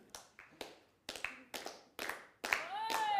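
Hands clap close by in a steady rhythm, a sharp clap roughly every half second, some landing in quick pairs. Near the end, a high voice-like tone rises over the last claps.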